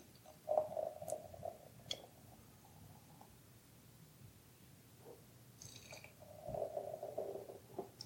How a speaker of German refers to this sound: Das macht schon mal ein schönes Geräusch beim Einschenken. Und es schäumt wie Hulle. Das gehört sich so beim Weizen her. Ja. Schönen feinporigen Schaum.